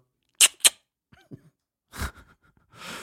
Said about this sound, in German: Dann guck mal, ob Laden so klingt. das war ein Locher. Ah, äh, Locher!